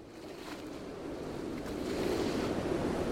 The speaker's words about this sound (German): Mann, warum ist es denn auf einmal so windig hier? Oh nein, das ist doch nicht schon wieder. Oh doch, und diesmal ist es kein gewöhnlicher Sturm. Siehst du das? Das ist ein Hurricane!